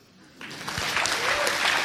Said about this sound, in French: On peut tous les applaudir très fort de liée à l'exercice.